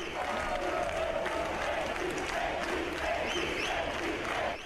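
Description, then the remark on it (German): A CDU party crowd at the Konrad-Adenauer-Haus cheers and applauds steadily as Angela Merkel and the party leadership come on stage shortly after 7 pm, a dense wash of clapping with scattered shouts and whistles rising above it, loud and unbroken for the whole stretch. “Das Publikum jubelt, aber Sieger sehen anders aus.”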